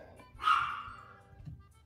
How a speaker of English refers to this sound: Yeah, there's my dog again. She's, she definitely likes to be a part of the podcast.